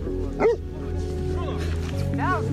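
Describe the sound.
A large dog barks a few times while running about the yard of a house on a hill, one sharp bark early on and softer, whining yelps later, heard against a steady background hum with muffled voices.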